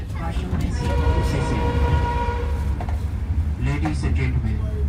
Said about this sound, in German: Der Zug stoppt in Luang Prabang. Viele Fahrgäste steigen hier aus.